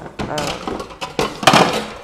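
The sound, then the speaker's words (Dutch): A cup being picked up and handled while making sushi rice, with a quick string of irregular clinks, knocks and scrapes of ceramic, fairly loud and uneven over about two seconds. “Ik pak een kopje.”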